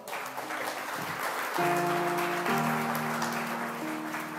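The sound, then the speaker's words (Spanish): A crowd claps in steady, dense applause for several seconds while sustained organ-like chords enter partway through and hold beneath the clapping. “Un aplauso.”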